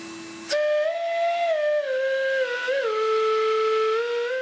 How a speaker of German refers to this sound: Auch aus einem uralten Staubsauger stellt er ein Instrument her. Eine alte Milette ist es. Normaler Staubsauger.